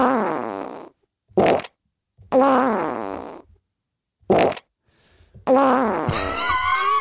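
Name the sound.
fart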